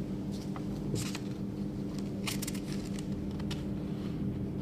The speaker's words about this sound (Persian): ببخشید من دارم برای کسایی که آفلاین گوش میدم توضیح می دارم ورق میزنم ببینم چیزی جا نمونده سکوت دلیلش اینه